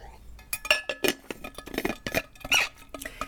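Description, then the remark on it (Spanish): Several bright glassy clinks and knocks in an irregular cluster, with a soft squeak, as a glass is handled and set down while someone takes a drink. “Eh, así que me voy a hidratar.”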